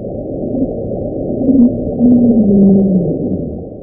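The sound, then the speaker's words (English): An unexplained underwater ocean sound, a drawn-out low moaning tone that slowly slides downward in pitch over a few seconds, heard alone against a dense, rumbling noise floor. “There are other unexplained sounds with interesting names like the upsweep, the slowdown, Julia.”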